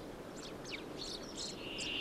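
A common chaffinch sings a quick run of high, bright chirping notes that speed up into a tumbling phrase, set against a steady hiss of background noise with a thin, sustained high tone.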